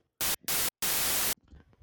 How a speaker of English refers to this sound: do we have a little uh, oh, demonic yeah, interference there? Some ghosts. Yes. demonic interference.